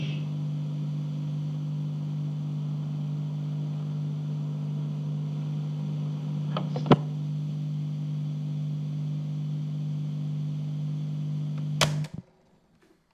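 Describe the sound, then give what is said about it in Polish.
A recorder's own mechanism whirs, recorded through its microphone, with a steady, low-pitched hum and a hiss, broken by a sharp click midway. It ends with another click as the motor cuts out. No one speaks. “Może spróbuję szum mechanizmu nagrać.”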